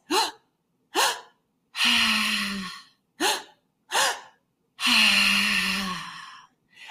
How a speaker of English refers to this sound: It's a three part breath and it's breathing all through the mouth. And so it's inhaling through the mouth and filling up the belly, then the chest, and then exhaling. So it sounds a little like this.